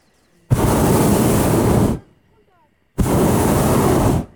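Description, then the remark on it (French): Two loud, roaring blasts from a hot air balloon burner, fired to slow the balloon's descent as it lands south of Annonay in calm wind; each lasts about a second and a half with a brief quiet gap between them, harsh, with no talking. “Deux petits coups de brûleur pour ralentir notre descente et Même pas un atterrissage, un baiser sur la surface de la planète.”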